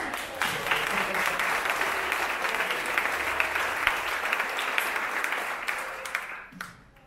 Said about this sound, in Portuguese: Quem gostou da palavra ordem, dá um aplauso a Jesus.